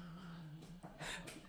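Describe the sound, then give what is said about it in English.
Two cats fighting: a low, drawn-out yowl holds steady while a few sharp, hissing bursts flare up over it, all fairly faint, with no talking. “the cats are fighting.”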